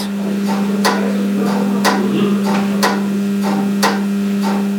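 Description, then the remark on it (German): Steady mechanical clicking from a railway signal interlocking, a reminder that a route has already been set, sharp clacks repeating about once per second in a regular rhythm over a constant low electrical hum from the switch cabinet. “da ist die ganze Elektrik auch am äh, Brummen, aber das Klackern, was man da eindeutig hört, das ist die Erinnerung, hier da hast du schon was eingestellt,”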